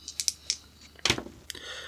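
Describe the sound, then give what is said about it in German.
Dice rolled during a board game turn clatter across a hard surface in a quick burst of sharp clicks, with a louder tumble near the middle and a final tap as they settle. No one speaks. “So, dann bin ich jetzt in Abendheim und muss jetzt würfeln.”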